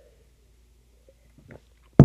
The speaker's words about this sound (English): So for me, I'm gonna take a sip of my espresso, Nespresso, really quick.